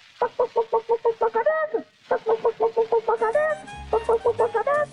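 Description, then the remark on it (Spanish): A voice imitates a hen clucking in rapid, evenly spaced bursts, pausing briefly before resuming, with rising squawk-like cackles between the clucks. Fairly loud, with faint low background hum. “Vendría usted así como la gallinita que Chiriquí y me diría...”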